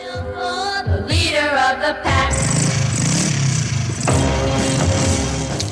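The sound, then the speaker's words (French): A motorcycle engine revs up twice in quick rising whines, then a full band song kicks in loudly, with the music carrying on over a steady rhythm. “et utilise le bruit de moto qui rythme la chanson pour souligner l'attitude décalée des femmes de mafieux face à l'expression de la violence.”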